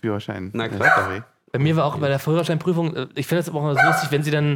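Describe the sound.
A dog barks a few times in the background while two people keep talking over it, the barks partly buried beneath the continuous conversation.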